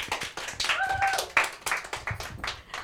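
An audience applauds, a dense, steady wash of many hands clapping throughout, with a brief whistle or cheer rising above the noise partway through.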